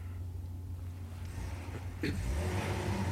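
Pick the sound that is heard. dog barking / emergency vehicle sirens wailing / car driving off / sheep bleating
car driving off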